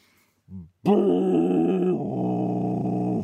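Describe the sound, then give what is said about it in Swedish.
A person vocally imitates the long, droning call of a very long horn that must be held up with a support: a brief low hum, then a sustained buzzy, brassy tone held for over two seconds, slightly wavering and dropping in pitch near the end. “jättelång trumpet, horn, sånt som måste hållas upp med stöd.”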